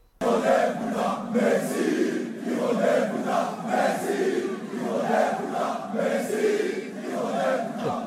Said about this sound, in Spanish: para hablar de Leo Messi, ah, que ayer los aficionados del PSG pues le dedicaron unas palabras y no precisamente agradables.